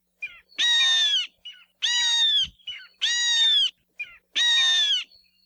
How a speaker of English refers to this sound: Io have shrill, high pitched calls that sound a bit like their name